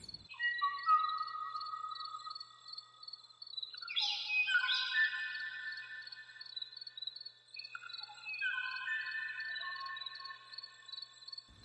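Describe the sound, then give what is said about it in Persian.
Song of one of the smallest bird species of the Hawaiian Islands, the last recorded sound of the last bird of this species: thin, high whistled notes and sustained trills, layered and continuous for the whole stretch, with a brief buzzy burst midway, heard clearly and alone without any talking. “چیزی که میشنویم آواز یکی از کوچکترین گونه های پرنده توی جزایر هاواییه در واقع آخرین صدای ضبط شده از آخرین پرنده این گونه”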